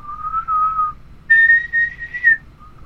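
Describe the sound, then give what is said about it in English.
Someone whistles three clear sustained notes, low, then high, then a brief quieter low one, with no talking. “Low, high, low.”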